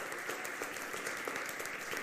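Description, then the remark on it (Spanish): A crowd applauds the Lord steadily, a dense wash of many hands clapping at once with no pauses, holding an even loudness throughout. “¿Cuánto damos un aplauso al Señor en este día?”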